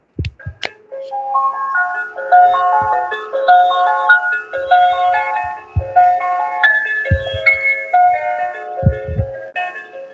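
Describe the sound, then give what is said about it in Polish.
A classical melody recorded by a real symphony orchestra, not a synthesizer, bright notes stepping up and down in a lively, steady phrase, with occasional soft low thumps underneath and no voices. “Mam nadzieję, że z Warszawy do Lublina ten dźwięk dobrze dolatuje i słychać, że to nie jest muzyka jakaś taka z syntezatora, tylko to są melodie, które są nagrane przez prawdziwe orkiestry symfoniczne, więc one rzeczywiście mają bardzo dużą jakość.”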